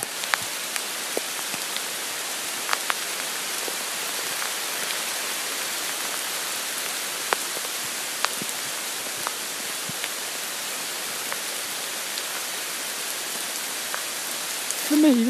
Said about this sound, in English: But I think for the moment I just want to listen to the sounds of the rain.